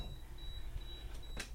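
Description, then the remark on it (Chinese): A Siemens refrigerator's door alarm falsely beeps though the door is shut, with a thin, high-pitched electronic tone in a few long, evenly spaced pulses, fairly faint over low background hum, with a couple of short rustling clicks near the end as someone presses it to silence it. “哎，我们家冰箱又在叫，你等一下，我就把它摁一下，它那个密封条好像有点问题，没事儿就没事儿就哔哔哔哔哔。”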